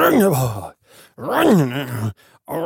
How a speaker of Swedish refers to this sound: när man gäspar så frigörs hjärnan hormoner som kortvarigt ökar hjärtrytmen